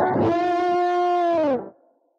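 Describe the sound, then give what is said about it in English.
A distorted Ibanez RG350 electric guitar rings out on a single sustained, heavily saturated note with a rich stack of harmonics, holding steady and loud for about a second and a half before cutting off abruptly. “it's an Ibanez RG350, which is kind of ideal for what we're talking about today because this guitar was designed around about the time these women were leaving the dojo, the majority of them anyway”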